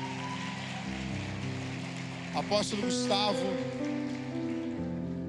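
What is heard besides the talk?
audience applause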